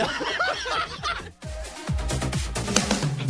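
A bird squawks loudly after being hit, in a rapid, agitated burst of harsh cries, breaks off briefly, then keeps squawking alongside a few dull thumps and what may be chuckling.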